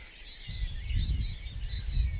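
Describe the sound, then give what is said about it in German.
Several small birds chirp and trill continuously outdoors on a meadow, layered over a steady low outdoor rumble like wind or traffic, with no one speaking. “Hören Sie mal, wie schön die Vögelchen da schon zugange sind.”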